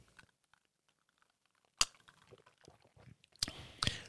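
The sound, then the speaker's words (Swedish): Quiet mouth and glass sounds of someone sipping a Long Island cocktail after a toast: a few sharp clicks and small clinks against near silence, with soft lip and swallowing noises between them. “Skål säger vi. Super. Smakar vi på en skål. Long Island.”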